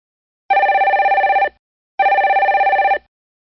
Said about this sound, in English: The hotline of the forest fire station was ringing.